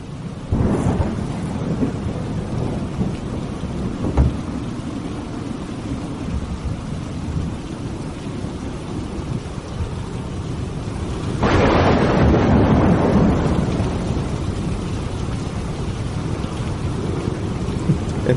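A thunderstorm with steady heavy rain hissing throughout, low rumbles of thunder rolling underneath, and a louder thunderclap breaking in midway before rumbling on beneath the downpour.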